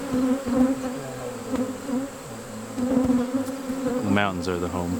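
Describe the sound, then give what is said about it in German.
A steady, dense drone of many bees buzzing around hives in West Virginia, a continuous hum with shifting pitch as individual insects fly past, and a brief faint voice-like tone near the end. “Draußen bei den Bienen reden sie nicht über Politik.”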